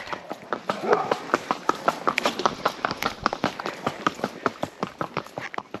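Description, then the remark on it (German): Steady clip-clop of horse hooves at a brisk, even trot, each hoofbeat sharp, continuing throughout with faint background noise beneath, during a multi-hour horseback ride to visit excavation sites. “Mit den Pferden wollen wir weitere Ausgrabungsstätten besichtigen und verbinden das mit einem mehrstündigen Ausritt.”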